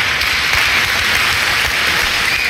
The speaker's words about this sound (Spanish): Sigue los aplausos.